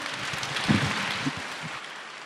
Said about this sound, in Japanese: 皆様大きな拍手でお見送りくださいませ